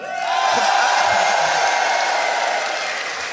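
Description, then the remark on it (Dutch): A large crowd of CDA party supporters at an election-night gathering in the Netherlands cheers and applauds loudly and continuously, a dense roar of clapping and whoops that swells quickly and holds steady without any talking over it. “Juich maar voor jezelf.”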